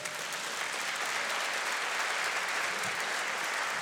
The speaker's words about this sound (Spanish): Y eso no merece un fuerte aplauso para el Señor.